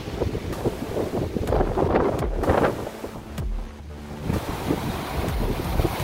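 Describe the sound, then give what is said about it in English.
Roaring hurricane wind with heavy rain, a dense, steady rush of noise broken by sharp gusts and buffeting thumps against the microphone, with no voices. “Definitely more rain.”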